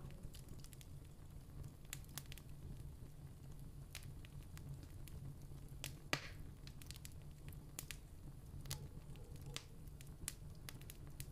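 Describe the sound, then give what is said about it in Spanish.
A steady crackling fire with frequent sharp pops and snaps scattered irregularly over a low, continuous rumble, fairly quiet, with one louder pop partway through. “El sonido del fuego junto con el sonido de la lluvia te hacen sentir tranquilo, muy relajado y contemplativo.”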